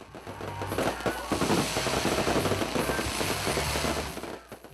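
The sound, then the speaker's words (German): Fireworks crackle and pop in a dense, continuous barrage at a large beach party of about 1000 people, with rapid sharp bursts overlapping throughout over a steady low rumble and faint background crowd noise. “Ja, es war eine ziemlich ähm, große Party mit Menschen auf Stelzen und DJ und Feuerwerk.”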